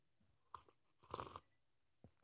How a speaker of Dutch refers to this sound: even een slokje water.